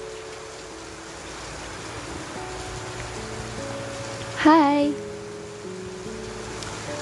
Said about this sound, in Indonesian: Pas banget nih, sore ini aku ngerekord pas lagi hujan.